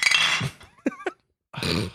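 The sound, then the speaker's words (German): Glasses clink together twice in quick succession as people toast to alcohol, each strike leaving a short bright ring, set between bursts of broad rustling noise before and after. “ich möchte, dass wir darauf anstoßen, nämlich auf den letzten Satz dieser wunderbaren Folge, auf Alkohol, der Grund und die Lösung all unserer Probleme.”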